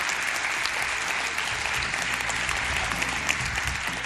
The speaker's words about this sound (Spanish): De nuevo saludo a toda la gente que se aquí en el Teatro Ramos Carrión y que se sienta de nuevo ese aplauso para saber que estamos ahí vivos con ganas en este mundo todavía.